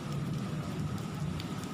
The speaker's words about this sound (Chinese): 下午三点，突然下起午后雷阵雨。有许多人因为这场缘分，下雨的缘分，被框在这个寺庙里躲雨。